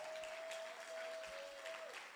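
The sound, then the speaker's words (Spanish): Loud, dense applause from a church audience, given for Jesus, a steady wash of many hands clapping throughout, with a faint sustained tone humming underneath until just before the end. “Alguien le da un aplauso fuerte a Jesús.”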